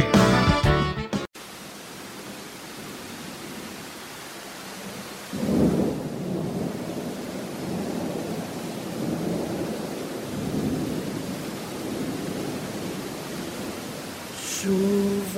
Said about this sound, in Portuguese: que vem caindo, com vento e com trovoada, molhando a varanda, correndo pra enxurrada.